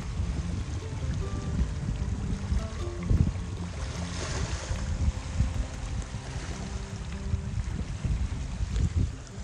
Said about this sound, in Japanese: 皆さん聞いてくださいこの波音